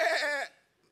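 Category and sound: animal, sheep bleating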